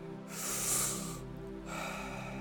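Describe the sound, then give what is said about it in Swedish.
Deep, forceful breathing in and out during a guided breathing exercise: a long rushing breath followed by a second airy one, loud and breathy, over a soft, steady low drone with no talking. “In, ut, in, ut. Fem kvar nu. Vi ger allt vi har. Fullt fokus. Djupa andetag.”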